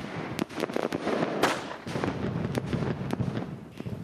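Fireworks crackle and pop in quick, irregular bursts over a constant rumbling din, with a few sharper cracks standing out.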